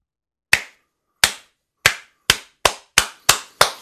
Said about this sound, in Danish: Det er mig, der klapper her, hvis man ikke lige kunne høre det. Øh, prøv her, det er jo simpelthen til at klappe over det her.